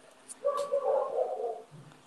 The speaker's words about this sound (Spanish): Sí, ahí me disculpan los perros que van a seguir jodiendo